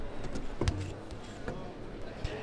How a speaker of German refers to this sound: Ich stehe jetzt vor einem Stand, ähm, davor ist ein buntes Glücksrad, wo ganz viele Wörter draufstehen, zum Beispiel Forderungen, Energiewende. Ich drehe jetzt mal das Rad